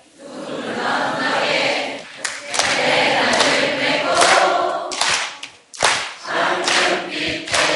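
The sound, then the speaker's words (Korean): A crowd sings together loudly while clapping along in rhythm, the steady claps blending into a dense wall of voices that dips briefly twice before carrying on. “그리고 박수까지 치면서 아예 놀 텐트가 됐네.”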